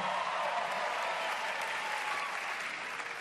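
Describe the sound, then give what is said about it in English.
A large audience claps steadily for a speaker announcing he recently became a father, a dense, sustained wash of applause at fairly constant loudness for a few seconds, with no voices rising above it. “Never as much applause on that part no applause, right?”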